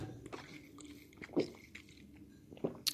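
Quiet sounds of yerba mate being served and sipped: soft wet slurps and small clicks, with a few sharper bursts near the end and no talking.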